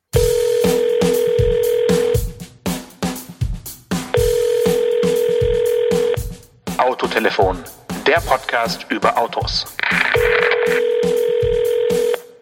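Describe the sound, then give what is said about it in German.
A short intro jingle built on a steady telephone-like tone over live drumming by a drummer and producer, replacing earlier synthetic drums, with rhythmic thumping hits throughout; a voice speaks briefly between the musical sections. “für uns das synthetische Trommeln durch ein echtes Trommeln zu ersetzen”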